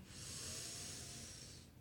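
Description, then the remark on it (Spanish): A single deep, airy breath taken during a guided breathing exercise, a steady breathy rush lasting under two seconds before trailing off, with no talking. “Respira conmigo, tres más.”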